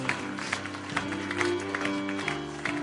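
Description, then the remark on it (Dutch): A church audience applauds Jesus for the people who have made the choice to follow him, in a steady, dense patter of clapping. Sustained keyboard or organ tones hold underneath, and no one speaks. “Geef, laten we Jezus een applaus geven, voor de mensen die de keuze hebben gemaakt.”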